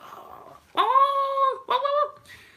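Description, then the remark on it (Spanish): A dog gives two drawn-out, high whining cries in quick succession, the first longer and the second shorter, each trailing off downward. Fairly loud, with no talking. “Y sale un zorro corriendo y salen los galgos, ¿no? Y van los perros.”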